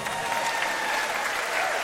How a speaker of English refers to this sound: I think we have to give Nish a round of applause now.